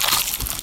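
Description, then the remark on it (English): A crisp crunch of someone biting into pizza with crunchy dough, a dense crackly burst of chewing texture lasting under a second with no voices. “How about another bite?”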